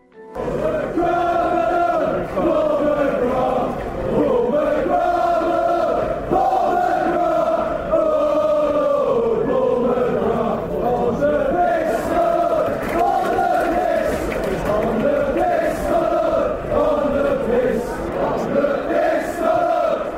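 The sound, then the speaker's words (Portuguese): A large crowd of Aston Villa football supporters chants in unison in tribute to a former player, a loud, sustained melodic song that rises and falls in steady phrases without pause throughout. “É, e o Aston Villa é, deu guarida para ele, ele ficou bastante tempo no clube, é muito agradecido e teve aí uma relação muito boa com a torcida que canta até hoje em homenagem a ele.”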